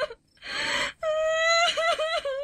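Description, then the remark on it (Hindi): A woman cries out alone from somewhere far away at night: a short breathy sob, then a long, high, wavering wail that rises and falls for over a second without any words. “तभी अचानक दूर कहीं से एक औरत के रोने की आवाज आने लगी”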